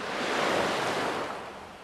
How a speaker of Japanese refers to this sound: お届けできたらなと思います海からね海から波音とともにお届けできたらなと思うんで